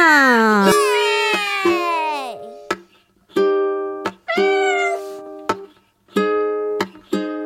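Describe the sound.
Voices sing a string of playful, high-pitched "meow" sounds imitating a cat, with gliding pitch at the start and sustained notes, over crisp, regular ukulele strums.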